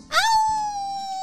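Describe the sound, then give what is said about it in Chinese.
An injured dog, Little Socks (小袜子), cries out in a single loud, high-pitched wail that sweeps up quickly, then holds a steady, piercing tone for about a second, with no talking. The small dog had been struck on the head with a stone and is bleeding. “小袜子痛得松开口，血不停地从他的小脑袋上流下来，他痛苦地大声地鸣叫。”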